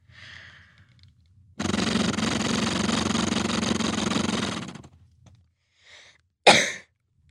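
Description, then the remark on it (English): A steady fluttering rumble from someone exhaling through an Acapella flutter airway clearance device, whose breath-driven magnet flutters to shake the lungs and loosen mucus, lasting about three seconds, framed by soft breaths and ending with a short, sharp cough. “it shakes my lungs by breathing into it, which activates a mag uh, the magnet to flutter, mm-hmm.”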